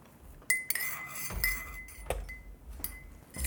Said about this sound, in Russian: Тебя в детстве когда-нибудь ругали, когда ты э, ложкой по кружке вот так вот сахар размешиваешь?